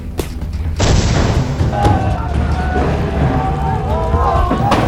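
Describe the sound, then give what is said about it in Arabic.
Heavy booming impacts as Saladin's catapult stones strike fortress walls, a loud thud followed by a sustained rumbling roar, with several more dull thumps and faint crumbling under low indistinct voices. “تابعوا الحفلة لن نترك لمداعبات صلاح الدين أن تفسد علينا حفلنا ولنعتبر مجانيقه جزءا من الإيقاع ليس أكثر”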